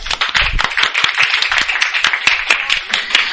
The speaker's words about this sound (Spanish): aplaudan, por favor.